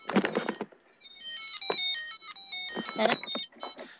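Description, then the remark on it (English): A mobile phone ringtone plays a bright electronic melody of stepping tones for a few seconds while people talk briefly over it. “My phone started doing you know that.”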